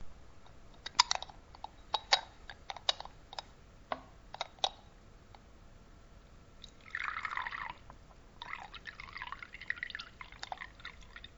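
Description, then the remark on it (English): Arabic coffee (gahwa) is poured into small finjan cups in the UAE: a series of light clinks and drips, then two steady streams of liquid splashing into a cup, fairly quiet, with no talking. “The sound of finjan and the flowing Arabic coffee reminds me of my childhood in our old house where all the extended family used to gather every Friday after prayer.”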